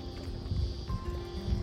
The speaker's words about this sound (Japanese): はいそんな感じでちょっとね風が強いので風の音がうるさいかもしれませんけども、えー、ご了承ください、えー、水の音とセミの音とあとボートの音ですね、えー、その中で収録してみました